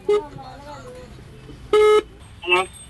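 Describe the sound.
Electronic phone tones beep over a muffled background as a man in a refugee camp outside Sittwe places a call over a 3G connection: a short blip, then a steady sustained tone about a quarter-second long, then a wavering chirp, with faint voice-like murmurs between them.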